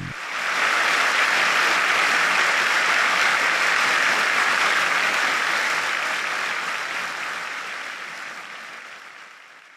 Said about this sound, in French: la fin de la chanson, tout le parterre se lève et lui offre plus de 20 minutes de standing ovation.